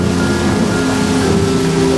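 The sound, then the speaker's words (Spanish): Rain pours down in a steady, unbroken hiss that stays loud throughout, with a faint low hum running underneath and no voices. “estruendo no es el sonido más representativo de aquella tragedia que marcó el final de la Segunda Guerra Mundial, sino este, este, la lluvia.”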